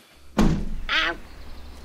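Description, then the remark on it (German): A window opening: a solid clunk of the latch, then a short, high-pitched squeaky creak as it swings, over faint background hum. No talking. “Du, ich mach mal schnell das Fenster auf, ja?”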